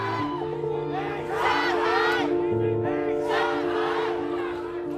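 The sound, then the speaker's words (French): A large crowd of young people in China shouts angry slogans together against the zero-Covid policy and the Communist government, in loud, surging waves, many voices overlapping, with a steady low drone running underneath; late November 2022. “des cris de colère d'une jeunesse chinoise à bout de nerfs.”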